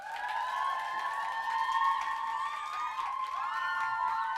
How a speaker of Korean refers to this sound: 2부 Q&A 시간 어, 박수로 시작해 보도록 하겠습니다.